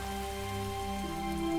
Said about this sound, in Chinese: 天空越来越暗。现在下起了倾盆大雨。对于青蛙来说，这雨也有点太大了。